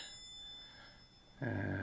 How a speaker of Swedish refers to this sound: Nu ringer det på dörren här. Vänta lite, jag måste kolla. Mm. Ja. 103 ringer på dörren.